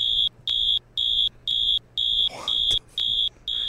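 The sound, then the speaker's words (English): A high, steady siren tone pulses on and off in quick regular beeps, about two per second, loud, with funky music and a faint low rumble underneath. “You hear sirens, you panic with funky music under it”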